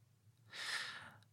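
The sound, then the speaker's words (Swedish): A single open-mouthed snore from a man lying in a bedroom, a breathy, airy rasp rising and fading over about half a second, moderately loud, with no one speaking. “Och där ligger Lars med öppen mun och snarkar.”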